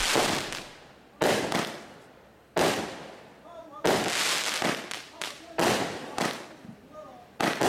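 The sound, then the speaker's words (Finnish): A rapid series of loud firework shots from a demonstration video, bursting in a black sky, each with a sharp bang followed by a crackling, fizzing tail. Roughly seven blasts come at irregular intervals, outdoors. “Joku firma demonstroidakseen mahdollisesti julkaisee näitä videoita. Eri värisiä.”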